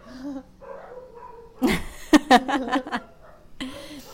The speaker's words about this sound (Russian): Пусть у меня псы на фоне будут, я просто мудрость буду говорить, а они там будут лаять.